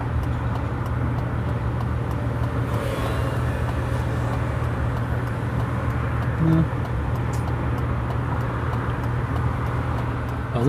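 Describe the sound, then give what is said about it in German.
A six-cylinder car engine runs steadily at idle, a smooth, quiet low hum with a constant droning tone and no change in pitch throughout. “so rein 6 Zylinder klingt doch einfach schön. Das ist so ein relativ ruhiger Klang und man hört es quasi nicht.”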